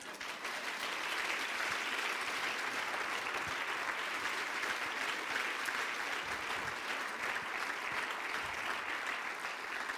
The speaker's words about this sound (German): Aber bevor du das tust, kommt jetzt das Zeichen für den Applaus für dein Lebenswerk.